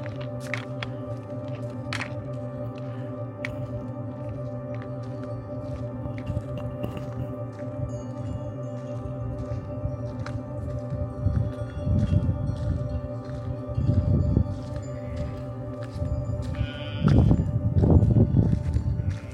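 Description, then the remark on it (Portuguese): A flock of sheep with a shepherd's herding dogs moves through the Alentejo, Portugal, hooves shuffling and thudding over a steady ringing drone, the movement growing louder in bursts toward the end. No one speaks. “paisagem sonora deste episódio é uma conversa com um pastor rodeado pelos seus cães e ovelhas em pleno Alentejo.”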